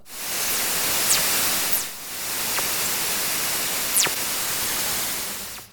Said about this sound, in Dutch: Oké, Fast Radio. Het is kort, hè? Dus goed luisteren. FRB, komen ze. Nou, dat vind ik ook wel gebliep. Dat is ook gebliep, hè?